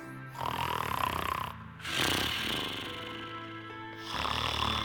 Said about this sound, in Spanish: Imagínense cómo serían los ronquidos de Pedro se escuchaban con toda fuerza. Estaban durmiendo cuando más los necesitaba.